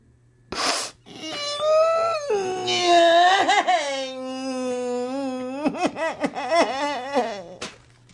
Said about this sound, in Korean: 간절히 붙잡는 아내를 팽개치고 떠나는 우노. 그리고 절망하며 울부짖는 우노의 아내.